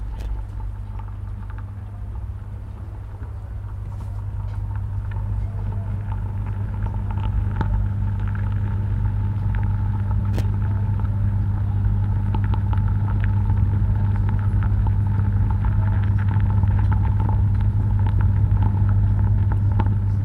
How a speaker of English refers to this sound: I think we listen into this uh, sound soundscape, the beehive, uh, for a moment.